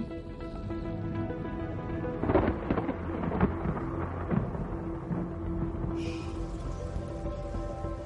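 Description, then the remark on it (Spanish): A steady wash of rain falls without pause, joined midway by a few low rolls of thunder, with a faint tonal hum underneath and no voices. “Mientras en tierra firme, la lluvia ayuda a mantener el delicado ecosistema de la Tierra y ayuda a que se den las condiciones para que se desarrolle vida compleja.”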